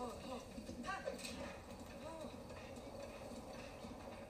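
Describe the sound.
A horse's hooves clip-clop in a steady, rhythmic gallop as the player spurs the horse on within a video game, mixed with busy game ambience and what sound like faint voices in the background.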